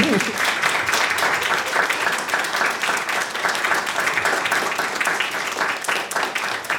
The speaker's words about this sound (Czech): Potlesk prosím. Díky.